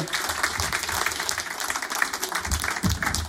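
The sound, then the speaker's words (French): A studio audience in the grand studio of radio station Fréquence Plus applauds steadily, many hands clapping in a dense, continuous wash that fills the room without letting up, with no talking over it. “On applaudit bien fort”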